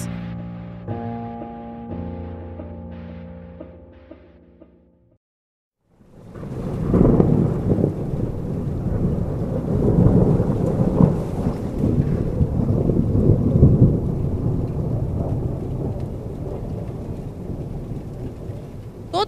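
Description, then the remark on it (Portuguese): A short musical jingle fades out, then after a pause a loud, steady downpour of heavy rain in Belo Horizonte begins, with deep rolling thunder rumbling through it until the end. “Em Belo Horizonte, as fortes chuvas provocaram inundações e transtornos aos moradores.”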